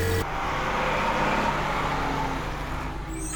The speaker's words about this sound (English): Truck.